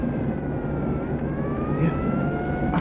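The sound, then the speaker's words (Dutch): A police motorcycle's engine drones steadily behind, its whining tone slowly rising in pitch as it draws nearer over constant road rumble, with no voices. “Achter ons rijdt een motoragent.”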